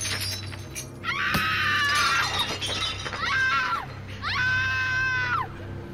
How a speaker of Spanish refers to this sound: Y se escuchó un ruido de cristales rotos y después gritos de mujer.